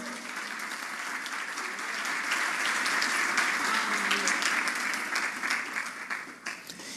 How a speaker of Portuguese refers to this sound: Você pode dizer amém para isso? Pode dar um aplauso para Jesus?